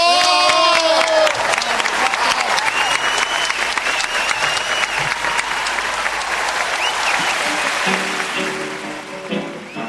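Sustained audience applause, a dense steady patter of many hands clapping for nearly ten seconds, with a few whistles and cheers early on before it gradually thins out.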